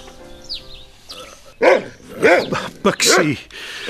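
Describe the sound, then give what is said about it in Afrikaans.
A dog barks loudly, four or five sharp barks in quick succession after a quieter stretch with faint high whines, no talking over them. “Hoe gaat het met jou mijn hond?”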